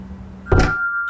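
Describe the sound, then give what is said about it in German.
A shop door shuts with a single solid thunk, followed by a faint, steady ringing tone that lingers briefly. No one speaks. “Die macht immer der zu, der zuletzt hindurchgeht.”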